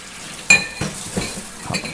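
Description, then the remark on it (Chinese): Cups being washed in a sink that is not tiled: a steady wash of running water with a bright ringing clink early on, then several softer knocks and clatters at irregular intervals. No voices. “好，这是在洗杯子。”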